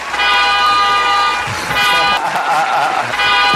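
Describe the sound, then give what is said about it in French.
Car horns honk loudly out in the street, three sustained blasts with short gaps between them, over a constant wash of street noise. “Il y a même les bagnoles qui gagnent dans la rue.”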